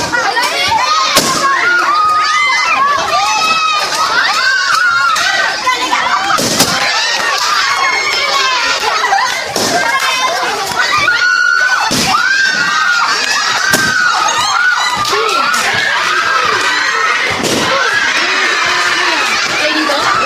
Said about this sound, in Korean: 다시 한번 아이들의 환호 성을 한번 들어보시죠.